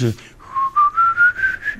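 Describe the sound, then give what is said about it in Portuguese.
A person who can no longer whistle because of an inner ear problem attempts to whistle, producing a thin, breathy tone that slowly rises in pitch across several airy puffs, with no talking. “É por causa da asma que já não assobia?”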